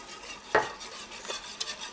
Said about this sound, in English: And we'll let this continue to get thick. Just stir with your whisk or whisk it.